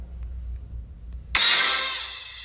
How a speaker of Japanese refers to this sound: まあ、なんて言ったって今日は天気がよろしくって日差しが強いので、日焼けしそうな日差しだなと思いながら、車の中でね、サングラスをかけて私、車中録しております。